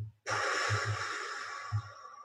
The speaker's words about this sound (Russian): Дыхательная гимнастика. Не забывайте про нее. Да? Вдох. Или наоборот. Вдохнули, задержали дыхание